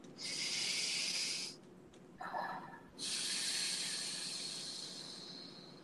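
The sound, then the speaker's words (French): A deep breath with no talk: a long, airy hissing inhale, a short pause with a soft snuffly sound, then a longer exhale that slowly fades. “Une respiration.”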